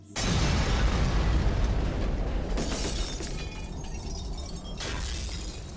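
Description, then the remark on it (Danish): A loud missile explosion erupts suddenly, followed by a sustained roar and the crash and tinkle of an apartment's window glass shattering, with fresh bursts of breaking glass continuing throughout. No voices are heard. “Hvert eneste vindue blev smadret.”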